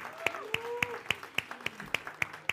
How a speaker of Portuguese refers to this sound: Você pode dar uma salva de palmas para Jesus porque Ele é a razão da nossa gratidão.